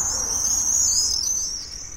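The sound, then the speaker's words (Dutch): A flock of swallows calls overhead while flying and catching insects, a steady stream of high, thin twittering that wavers in pitch and continues without pause over a faint low rumble. “Terwijl ze vliegen vangen de zwaluwen insecten, dat is lekker, ook voor hun jongen.”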